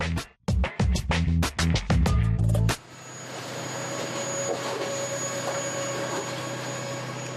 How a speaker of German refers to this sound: Schlachtschiff nennen die Arbeiter dieses Gefährt. Es kommt meist dann zum Einsatz, wenn mehr als 500 Meter Gleis zu verlegen sind oder es besonders schnell gehen muss. Der Umbauzug erledigt fast alle Arbeiten automatisch.